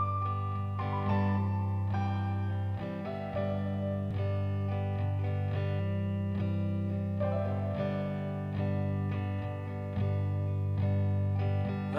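rock song recording playing

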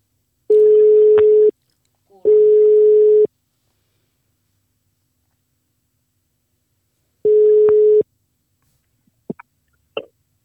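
phone call ringing tone

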